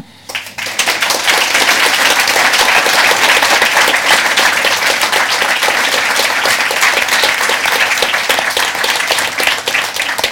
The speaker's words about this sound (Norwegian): Så da sier vi tusen takk for uh, i kveld, og tusen takk til alle paneldeltakerne. De, dere ga dem applaus i stad, men de fortjener en til.